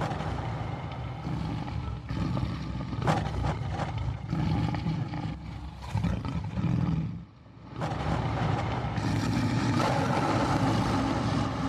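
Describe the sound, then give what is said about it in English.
A loud, sustained tiger growl drenched in echo and a swirling flange effect, rumbling continuously with a short drop-off midway before surging back, no voices present. “And then maybe if we like put a little echo and flange on that, you know,”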